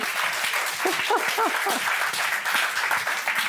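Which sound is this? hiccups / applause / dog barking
applause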